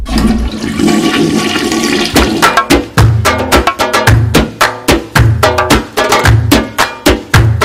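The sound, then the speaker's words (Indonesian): A toilet flushes with a loud, rushing gush for about two seconds, then a punchy rhythmic music beat kicks in and carries on steadily to the end. “Langsung aja, let's flash it”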